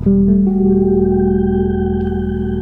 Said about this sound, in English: And then next, I've got the um, Hall of Fame. I use this in a bunch of different ways. Um, one that I really like though is this shimmer sound. So if I do, um, let me get this shimmy over here.